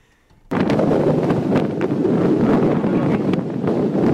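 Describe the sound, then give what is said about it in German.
Strong wind roars and buffets the microphone after a brief quiet start during a race around Ireland, blowing from all sides at once, a loud, continuous rumbling gust with occasional sharper bursts, no voices present. “aber er kommt weder von hinten noch von vorne, noch von links, noch von rechts, sondern von überall.”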